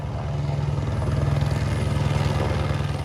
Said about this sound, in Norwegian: Over hodet på køen av nyankomne kretser grensepolitiets helikopter.